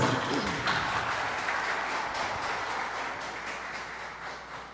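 A crowd applauds steadily for their spiritual leader as she is introduced, a dense wash of many hands clapping at once that holds for several seconds and slowly eases off, with faint voices mixed in.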